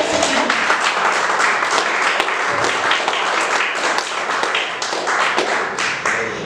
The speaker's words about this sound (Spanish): Un aplauso